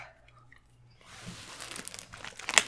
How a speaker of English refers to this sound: They're just mm. Those ribs are good and now I'm chewing, but.